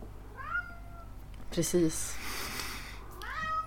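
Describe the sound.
A cat in heat yowls repeatedly in the background, drawn-out rising meows at moderate volume, while a person speaks briefly over the calls.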